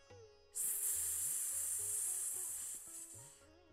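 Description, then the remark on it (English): A person breathes out in one long, steady hiss like a cobra while lifting their head from the floor in a cobra pose, fairly loud for about three seconds before it cuts off. Soft music plays quietly underneath. “And as you breathe out, we're going to lift our heads, making a hissing sound, just like a cobra.”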